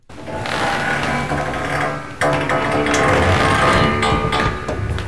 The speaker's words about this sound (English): and as I was pushing it back in, it made a sound. And that sound reminded me of like a a classic rock tune. Hmm. So oh. so this so I recorded the sound of me pushing the couch back in and and and see if this uh, this this makes sense to you.